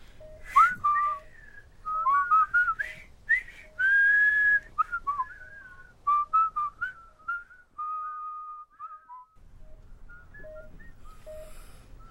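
A person whistles a slow tune up close, the melody moving through a series of held and gliding notes before fading out, with faint breathy background noise near the end.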